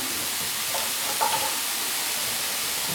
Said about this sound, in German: Das mache ich jetzt hier mit der zweiten Dose auch noch. Allerdings, weil ich so ein bisschen von dem will ich es mal nennen, von, der, von dem Wasser aus der Dose möchte ich auch noch mit in die Soße kippen.